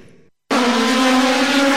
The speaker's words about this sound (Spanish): queda detenido el auto de Lucas Vicino en la puesta en marcha de la carrera final de la clase 3